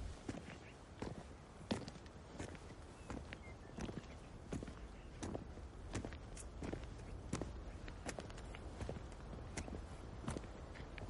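Slow, regular footsteps of a woman walking head bowed along a narrow mountain road, each step a crisp scuff or tap on the hard surface, over a faint continuous background hiss with no voices.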